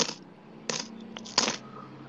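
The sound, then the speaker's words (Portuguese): Gold coins clink together as they are counted in a room, in three separate, evenly spaced chimes, each bright metallic strike trailing off in a soft ring, with small faint taps in between. The sound is fairly quiet, and no one speaks. “Todas as manhãs, assim que acorda, e todas as noites antes de dormir, Pantalone se tranca em seu quarto, cuja janela dá para a rua, para contar e recontar sua coleção de moedas de ouro.”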